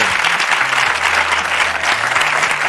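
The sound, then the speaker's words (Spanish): Steady, dense applause from a crowd, a continuous wash of many hands clapping at a loud, even level with no gaps, lasting the whole few seconds. “Gerard de Gerard de Depardieu, un aplauso.”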